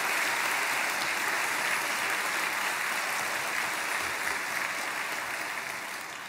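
An audience at a dawn church service breaks into sustained applause of encouragement for about 120 members of Daejeon Onnuri Church who came up to sing praise. It is a dense, steady wash of many hands clapping that holds evenly and fades slightly at the end, with no voices over it.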